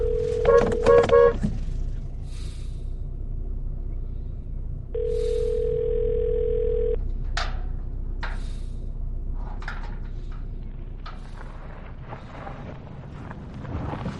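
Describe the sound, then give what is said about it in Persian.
A call to a mobile phone rings out with a steady two-second ringback tone after a quick burst of beeps, set against rushing wind-like background noise, and nobody picks up. “جواب نمیدی موبایلش جواب نمیدی”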